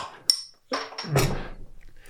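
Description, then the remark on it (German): A pale ale bottle is opened using another pale ale bottle: a sharp metallic clink of the cap, then a brief rushing burst of sound that quickly fades, with faint clatter afterward. “öffnet jetzt ein, Pale Ale, ein helles mit einem Pale Ale.”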